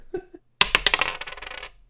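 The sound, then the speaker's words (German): A rapid clatter of a rolled die tumbling and bouncing across a surface, starting abruptly loud and rattling to a stop within about a second, after a brief faint sound. “Und der Würfel sagt.”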